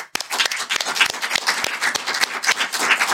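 A burst of applause from a small group, dense irregular clapping with sharp individual claps standing out, steady and fairly loud throughout the short clip with no talking.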